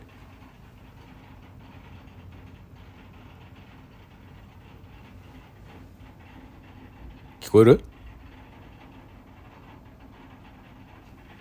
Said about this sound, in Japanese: これね雨音だと思うのよ僕が今入ってる部屋がねあの角部屋なんですよこう通路の一番端っこの部屋でんか外側今外壁の方に面したとこなんですよそのね外壁の方に面してるとこがめちゃくちゃうるさいのよ